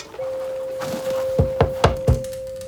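Four dull, evenly spaced knocks on a door, firm and fairly quick, preceded by a few softer taps, with a steady faint tone humming underneath throughout.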